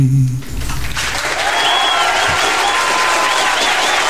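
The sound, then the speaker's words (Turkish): A crowd breaks into sustained applause after a brief low vocal note, the clapping dense and steady throughout, with faint cheers and whistles riding over it. “Böyle alkışımız falan da vardır yani.”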